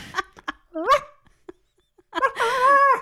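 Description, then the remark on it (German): A person imitates a Rottweiler barking: a few short, yappy barks, a pause, then a longer, drawn-out whining bark, all voiced rather than real. “Das klingt aber nicht so nach Rottweiler.”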